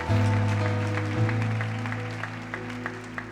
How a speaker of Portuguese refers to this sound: Se você crê nisso, dê um brado ao Senhor. Dê glória a Deus e aplauda.